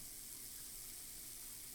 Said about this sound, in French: Mais d'abord, une douche chaude t'attend.